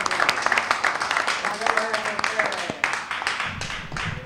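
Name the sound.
applause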